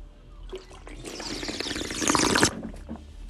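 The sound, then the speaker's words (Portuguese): Someone takes a sip of water, a wet, slurping burst of liquid lasting about a second and a half, with no talking. “Um gole de água, para vocês também ouvirem um bocado da música.”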